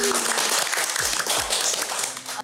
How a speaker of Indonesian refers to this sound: Tepuk tangan dulu guys.